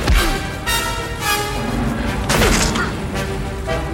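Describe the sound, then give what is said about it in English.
A series of heavy punch impacts, about six, as Indiana Jones (Indy) throws punches without much effect in a film fight, landing in an uneven rhythm, each punctuated by loud orchestral stabs and brassy accents over continuous dramatic film music. “As Indy starts throwing punches, without much effect, the music accents them here.”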